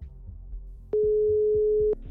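A single loud telephone ringback tone, heard while a reporter phones a man in autumn 2021, sounds for about a second, a steady electronic hum with a click at start and finish, over faint low background noise.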